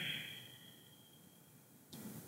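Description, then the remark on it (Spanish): A long, airy breath drawn in through the open mouth with a faint whistle, fading slowly, then a fresh rush of air as the breath is pushed out through the nose near the end, as a deep breathing exercise. Quiet, with no talking. “Entonces, yo siempre eh, les pongo a hacer este ejercicio de respiración con la boca abierta. Por ejemplo, hago esto. O sea, inspiras por la boca, y exhalo por mi nariz.”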